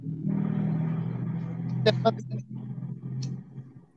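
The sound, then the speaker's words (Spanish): A motorcycle passes by outside, its low engine rumble droning steadily for several seconds before easing off slightly, with a brief voice-like burst cutting in around the middle. “Perdón, no te escuché por el que pasó un moto.”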